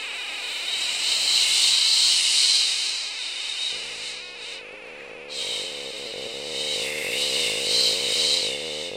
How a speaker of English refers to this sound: very intense. It sounded like staticky, I think, static noise, but it was just so intense. And it, as it gradually got louder, it was intensified more, and it would get softer again. It was just very sharp, like high pitched noises all together.